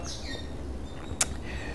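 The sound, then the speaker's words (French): A bird chirps with a few high, thin whistled notes and one sharp, brief tweet, set against a steady low background hum with no talking. “il y a un oiseau qui, est en train de. Je ne sais pas si tu l'entends, mais il me déconcentre.”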